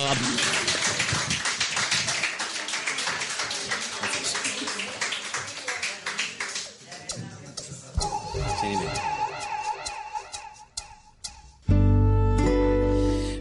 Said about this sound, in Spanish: Muchísimas gracias a los tres por estar. Eh, gracias por haber estado en la Estación Canalla. Un saludo. Gracias, un aplauso.